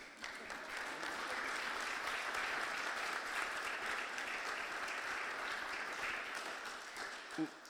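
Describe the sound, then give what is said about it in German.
An audience at the Katholische Akademie claps steadily for several seconds to welcome Daniela Danz, a dense, even wash of many hands that holds its level throughout before tapering off slightly at the end. “Sie ist das erste Mal hier, was einen besonders heftigen Applaus hervorrufen könnte.”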